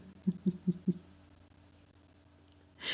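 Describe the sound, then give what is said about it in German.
An eagle owl hoots four times in a quick, evenly spaced series of low, resonant notes, followed by a pause and a short burst of hissy noise at the end. “Achtung, was sitzt auf dem Baum und ruft Aha? Ein Uhu mit Sprachfehler.”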